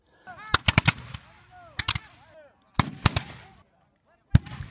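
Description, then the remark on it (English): Rapid gunfire crackles in irregular volleys during a night battle at a military camp, soldiers fighting Native American warriors in dark, rainy conditions. Several sharp, loud shots cluster together, then brief pauses before the next burst, with shouting voices rising and falling between the shots. “Officer John Tipton says that the first two hours are, quote, continual firing, close quote.”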